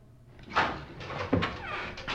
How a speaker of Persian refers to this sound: در باز شد